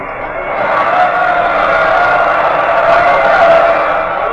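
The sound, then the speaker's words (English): A large circus crowd roars and cheers in one continuous, loud wash of overlapping voices that swells slightly and holds steady for several seconds, with no single voice standing out. “Once, only once, I had to close my eyes, and in that second, I, I heard the crowd roar.”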